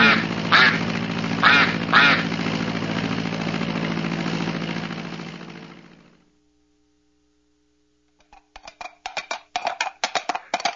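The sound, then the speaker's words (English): A duck quacks a few times over a steady, loud airplane engine drone that cuts off abruptly, followed by a short silence and then a rapid burst of quacking on its own. “The duck is in a plane.”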